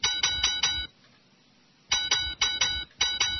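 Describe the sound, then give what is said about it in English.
A small bell rings in quick, bright bursts: a rapid cluster of strikes, a brief silent pause, then more ringing. It sounds fairly loud, with no voices. “That's better bell.”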